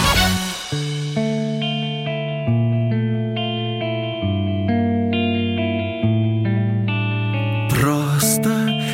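An instrumental song intro of sustained, effects-laden chords shifting every couple of seconds, steady and fairly loud, ending with a bright crash-like burst as the band kicks in.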